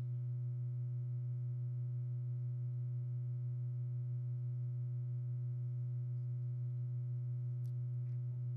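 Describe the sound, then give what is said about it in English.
A steady low-pitched electronic tone hums continuously at an even volume, faintly pulsing as an alpha binaural beat, with a couple of brief high clicks near the end. “It won't be a loud one, but it'll be a click, and then we'll go right into alpha. Do you hear that, everyone?”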